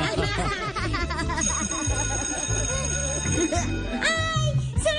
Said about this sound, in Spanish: timbre! ¡A descanso! ¡A descanso!